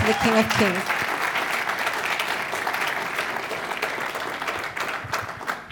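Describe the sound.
An audience applauds the King of Kings in a loud, dense wash of clapping that holds steady for several seconds and fades slightly at the end, with a voice briefly audible at the very start.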